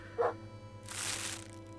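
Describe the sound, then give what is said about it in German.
A dog with a man outside gives one short bark, moderately loud, followed by a sustained broad hiss or rushing noise; no one speaks. “Der Mann da draußen mit dem Hund, der.”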